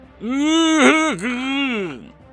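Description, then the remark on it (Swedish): A man's voice lets out a drawn-out, throaty groan lasting almost two seconds, its pitch dipping briefly in the middle before trailing off. It is fairly loud, with no other sounds. “Han verkar inte tala, men han ger ifrån sig något strupljud av något slag.”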